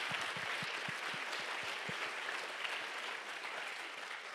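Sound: audience clapping hands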